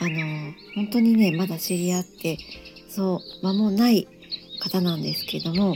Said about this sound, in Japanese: えー、今、私のサロンで流しているんですけども、少しね、鳥の声が入っていますかね。